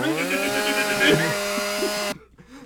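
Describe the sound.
A person imitates a chainsaw with a loud, buzzing, revving drone that holds steady for about two seconds, then cuts off abruptly, leaving a brief quiet breath.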